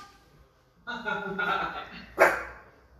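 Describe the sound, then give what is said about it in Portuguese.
A female dog lets out a drawn-out, tonal vocal sound followed by one short, sharp bark, fairly loud. “Nunca late, agora ela resolveu latir.”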